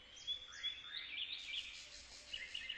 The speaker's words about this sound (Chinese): 很快，一座新鸟舍立在了托比的机房旁。鸟儿马上飞了进去，啾啾地叫得好欢快。